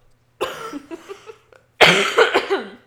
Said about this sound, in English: Um, I am still sick as you can hear in my voice. So, um, yeah, I'm about to cough.